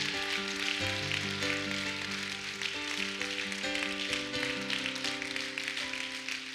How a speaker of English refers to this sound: Clap your hands like God's awesome. Come on, keep on clapping like He's awesome. Come on and clap your hands, all you people.